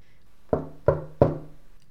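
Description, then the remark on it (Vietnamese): Three firm knocks on an entrance door in quick, even succession, fairly loud, each with a short hollow resonance, followed by quiet. No one speaks. “cửa ra vào vang lên tiếng gõ”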